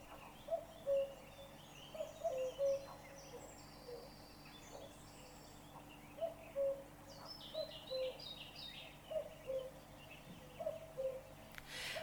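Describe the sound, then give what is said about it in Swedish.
A common cuckoo calls its repeated two-note "cu-coo" several times at a steady pace, while smaller birds chirp faintly in the background of an outdoor scene. “Västergök var bästergök. Östergök var tröstergök. Norrgök var sorgegök och södergök. Det var dödergök. Hör”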